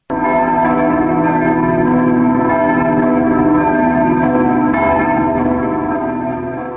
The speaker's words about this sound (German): Gründonnerstag erklangen zum letzten Mal die Kirchenglocken, die für drei Tage nach Rom flogen, um sich von dort neue Kraft und neuen Segen zu holen.